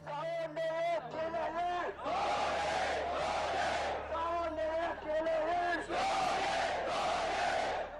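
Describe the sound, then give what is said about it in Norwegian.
A large crowd of Buddhist monks and other people in Burma shouts slogans in unison during a peaceful 2007 protest against the junta, voices rising in loud rhythmic bursts with brief pauses between chants, dense throughout. “Munkene og et voksende antall personer ropte slagord, applauderte og bedde.”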